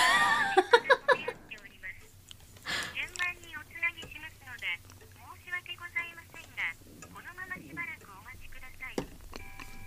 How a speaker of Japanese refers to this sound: うん、あいつが俺の携帯にかけたの。